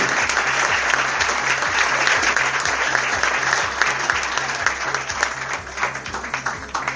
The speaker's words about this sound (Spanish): Fuerte el aplauso ganador. Mejor guión en este segundo Festival de Cine Mercatense.